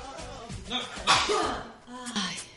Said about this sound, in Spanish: Ahora sí que voy a estornudar. Estornuda, estornuda. Me sale el estornudo hace calete rato.